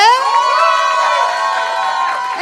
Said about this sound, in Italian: Adesso sul palco le ragazze di …, applausone.